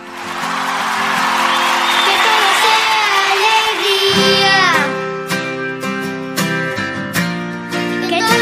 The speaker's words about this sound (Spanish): Este aplauso para nuestros dos campeones, nuestros nuestros talentos de la semana, de este sábado.